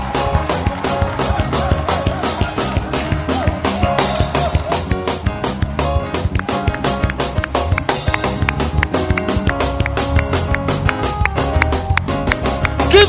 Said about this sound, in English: Can you clap your hands for Jesus?